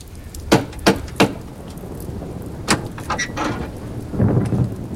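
Three sharp, evenly spaced knocks on a wooden door, followed a moment later by another lone knock and a few softer taps, all over a steady rain-like rumble.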